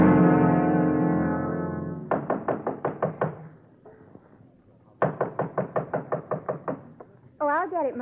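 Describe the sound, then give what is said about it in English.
Two quick bursts of sharp knocks on a door, each a run of about seven or eight firm raps, with a voice speaking before the first and another voice briefly after the second. “Mother. I can open the door, can't I?”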